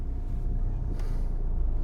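A steady, low rumble of a car being driven along a road on the route to the small French town of Kui, with constant engine and tyre noise and no voices.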